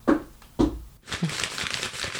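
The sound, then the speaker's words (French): Paper crumpled: two sharp crackling crunches, then a steady stretch of dense, rustling crinkling with no one speaking. “Euh, du papier Pas compliqué. Du carton.”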